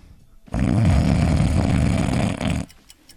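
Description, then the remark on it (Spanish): A single loud, rasping snore lasting about two seconds, with a rough, rattling low drone, then it cuts off into quiet. No talking over it. “Ronca tres, cuatro veces y después viene un silencio.”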